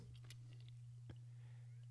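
Quiet chewing with a couple of brief crunchy bites of a protein bar, over a steady low electrical hum. No one speaks.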